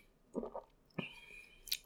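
Soft slurping of hot coffee, followed by a wet click and a quiet gulp as it's swallowed, then a faint smack of the lips. No talking.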